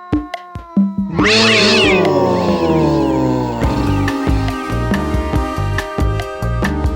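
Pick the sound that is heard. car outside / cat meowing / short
cat meowing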